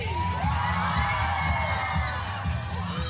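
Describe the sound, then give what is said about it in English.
A Pride march crowd of about a thousand people in Bialystok, northeast Poland, marching through the streets and riding on floats draped in rainbow flags, cheers and sings: a dense, steady wash of many voices with rising whoops and shouts layered over a low rumble, loud throughout. “A crowd of about a thousand people marching through the streets, singing songs, riding on top of floats draped in rainbow flags.”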